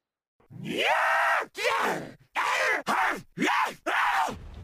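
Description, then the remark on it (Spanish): A long, loud scream rising in pitch, followed by a rapid series of four or five shorter, strained shrieks. It is harsh, with nothing else audible. “Y el silencio que hay en el lugar inmediatamente se interrumpe por un grito.”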